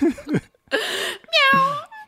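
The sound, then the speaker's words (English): A person's voice imitates a cat's meow: short vocal bursts and a breathy sound, then a loud, drawn-out tonal meow that falls in pitch and fades. “Is it intimate? meow.”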